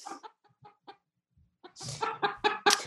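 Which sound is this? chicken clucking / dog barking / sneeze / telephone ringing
chicken clucking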